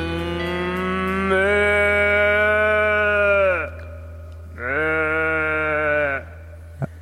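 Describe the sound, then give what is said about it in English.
A cow moos twice, loud: a long drawn-out low call, then after a brief pause a shorter second moo, with no one talking, heard at the end of a song of Albertan music. “that is some Albertan music there with some cow sounds at the end.”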